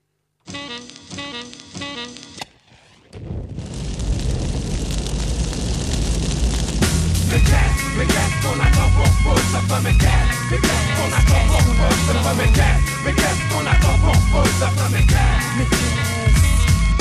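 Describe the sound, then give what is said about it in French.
A French rap song intro plays loudly, with a short melodic opening, a brief drop, then a swelling rumbling build that settles into a heavy, steady beat, with no vocals yet. “Donc voilà, on écoute le morceau et puis si on a des choses à dire, on les dira.”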